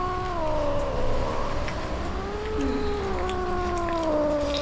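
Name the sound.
kitten meowing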